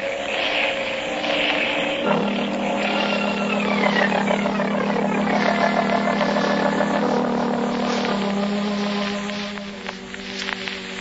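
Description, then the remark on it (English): A seaplane's propeller engine drones steadily and loudly, its pitch sliding downward as the plane descends to land in a cove along the coast, with no voices present. “I'll have to put this plane down in that cove there and trail the pigeons by daylight.”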